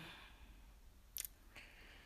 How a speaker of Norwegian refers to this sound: Og det er så deilig å bare gå her. For det eneste vi hører, er snøen som knirker. virkelig deilig.